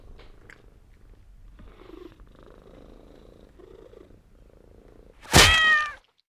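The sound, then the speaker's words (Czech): A domestic tomcat purrs steadily, a low continuous rumble, then lets out one loud, drawn-out meow near the end. “Tady máte toho našeho kocoura.”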